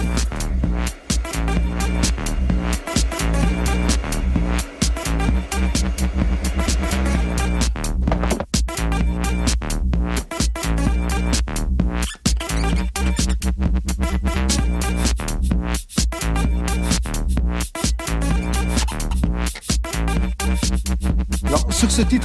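An electronic dance track that became a standard of the FCOM label plays on its own, loud and steady, driven by a heavy, throbbing bassline under a regular, pulsing beat, with no voices.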